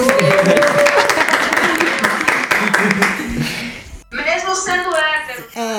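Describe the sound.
A crowd bursts into dense, steady applause, many overlapping claps for a few seconds, then the clapping fades as loud excited voices and cheering take over.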